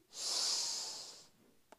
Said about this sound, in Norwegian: Pust godt inn